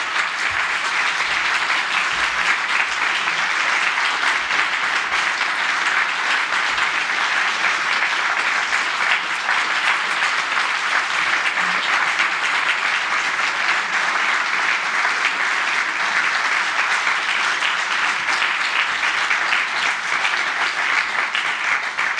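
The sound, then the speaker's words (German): Sustained audience applause for the third-place winners of the 'langer Atem 2020' award, a dense and steady wash of clapping from many hands that holds at an even, fairly loud level for over twenty seconds with no talking over it. “Ja, haltet ihn mal hoch, das ist ja euer Applaus, deshalb wollte ich nicht reingehen”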